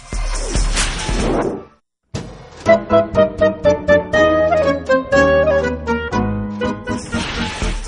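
A short instrumental musical bridge on the program Momento Económico on Radio UNAM: a whooshing sweep, a brief pause, then a bright, pulsing melodic passage with steady rhythmic hits, closing on another rushing swish. No one speaks.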